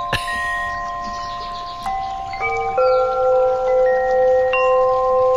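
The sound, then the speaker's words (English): Wind chimes ring out in irregular, overlapping strikes, each clear metallic tone sustaining and layering over the others, with a steady rush of wind noise underneath throughout. “The reason why I like this one is because the, the wind chimes are so clear and I think they're all in the positive key.”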